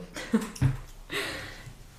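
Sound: cough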